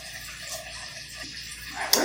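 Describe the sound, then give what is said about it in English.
Six cups of water pour steadily into a pot holding two cups of strawberries, a soft continuous splashing and gurgling, ending with a brief louder splash. “Next, we added six cups of water to our two cups of strawberries.”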